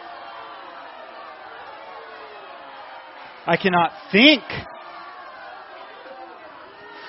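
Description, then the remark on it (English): A large crowd cries and screams in a dense, unbroken clamor throughout, while one voice speaks briefly and loudly over the din midway. “Their cries and screams are loud and unbearable.”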